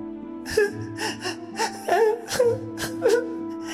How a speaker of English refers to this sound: And as your eyes fall on it, you hear crying in your mind.